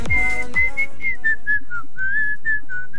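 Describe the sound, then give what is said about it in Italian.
A woman whistles a song melody, a clear, bright tune of held and gliding notes in short phrases, with faint low rumbling underneath and no talking. “Fischela, que- fischela, lei, lo sapevo.”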